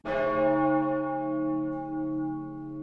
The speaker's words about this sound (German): Und schon läutet die Glocke das Mittelalter ein und mit ihm 1000 Jahre, die stark geprägt sind von der Kirche. Die Glocke rief nicht nur zum Gottesdienst, sie stand für die allumfassende Macht der Kirche in dieser Zeit.